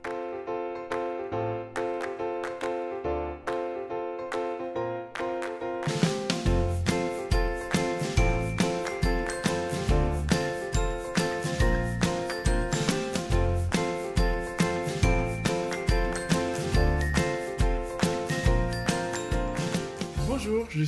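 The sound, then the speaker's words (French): A bright, tinkling intro theme jingle plays alone: sparse chime-like notes for a few seconds, then a fuller upbeat tune with steady rhythmic percussion and sustained melodic tones, loud. “Pour bien comprendre et apprécier son périmètre d'intervention, on se retrouve tout de suite après le générique.”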